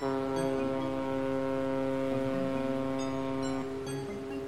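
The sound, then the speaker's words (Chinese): A cruise ship horn blows one long, unbroken blast, a deep and loud droning tone with rich harmonics that holds steady for several seconds without any voices. “此时，载着小老鼠的大游轮突然鸣笛了。”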